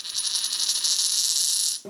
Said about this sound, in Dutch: maar als je wat algemener geluk kunt gebruiken, leg je een muntje in de bek van het zwijntje. Als het al tollend in het rooster rolt, zorgt het zwijntje voor een portie geluk.